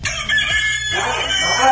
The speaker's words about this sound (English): All of a sudden, you hear this loud recording of a rooster's crow over and over again.